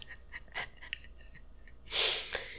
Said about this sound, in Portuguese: Caralho, espirrar é uma merda, né, cara?